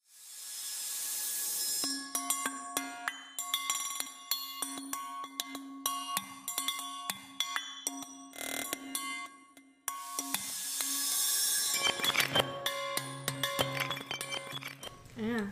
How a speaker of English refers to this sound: it's the sound of like a little ball bearing that's like rattling around in a cup, mm-hmm. and that's what they use for the beat.